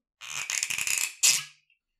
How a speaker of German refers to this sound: Ich habe mir tatsächlich jetzt wirklich noch nichts eingeschenkt, sondern ich wollte jetzt doch nochmal das ploppende Geräusch des äh, Whiskys machen, wenn ich äh, den Korken rausmache.